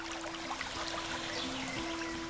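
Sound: flowing brook water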